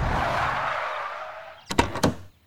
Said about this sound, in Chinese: 猴子警长和小鸡墩墩停下了越野车，来到了地图上标记的城镇。